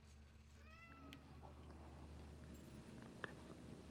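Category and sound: animal, cat meowing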